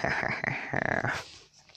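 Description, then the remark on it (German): A dachshund whimpers and growls in a short burst of uneven vocal noise that trails off toward the end. “mein Hund ist gerade auch da. Mein Dackel.”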